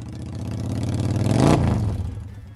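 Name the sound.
motorbike engine revving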